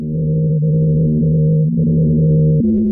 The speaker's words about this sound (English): Sounds ominous, and with any luck, the humming provides good data and not a swan song for the ice shelf.